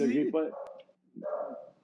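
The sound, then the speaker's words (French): A dog barks in two short bursts of yelping barks separated by a brief pause, fairly loud against a quiet background. “C'est pas mon chien qui jappe, c'est Vous autres, il y un chien?”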